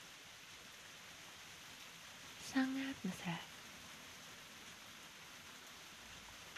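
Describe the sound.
Steady heavy rain hisses throughout, a dense even wash of noise, while a voice speaks briefly near the middle.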